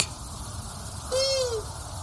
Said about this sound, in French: Donc pour différencier chouette et hibou, pensez donc que les hiboux sont des chatons, en gros, voire même des gros chats pour le grand-duc, qui font de simples ou. Écoutez plutôt le petit duc, le moyen duc